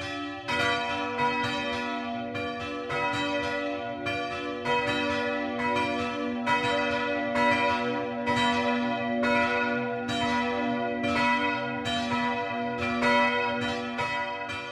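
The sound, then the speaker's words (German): Church bells of the Catholic parish church St. Joseph in Speichertz, a small village in the Franconian Rhön in Bavaria, Germany, near the Hessen border, ringing the 12 o'clock midday peal, a steady overlapping cascade of strikes with long sustained hum, loud and continuous throughout, no voices. “Das Mittagsläuten kommt heute aus Speichertz, einem kleinen Dorf in der fränkischen Rhön nahe der Grenze zu Hessen.”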